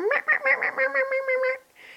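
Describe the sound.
A person imitates the chirping their cat Zorro makes when looking out the window, with a quick run of about eight short chattering chirps in one breath, ending in a soft breathy exhale.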